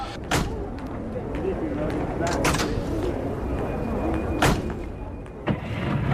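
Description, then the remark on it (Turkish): A car door is opened with a few sharp latch clicks and clunks spaced over several seconds, against a steady low rumble with some muffled voices. “Ah, sen sen kapıyı aç ver tamam, Tamam tamam tamam.”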